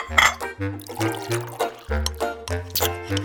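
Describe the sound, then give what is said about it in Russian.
Tea pours into a glass in a steady, gurgling stream lasting a few seconds, with a bubbly, ringing tone that shifts as the liquid runs. “Ну, теперь можно и чайку”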